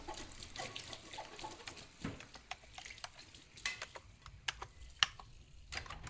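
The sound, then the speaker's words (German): Washing up at a sink: a steady rush of running water with scattered sharp clinks and clatters of dishes, one louder knock near the end, and no voices. “Aus orthopädischer Sicht bin ich für die Arbeit an dieser Spüle gänzlich ungeeignet.”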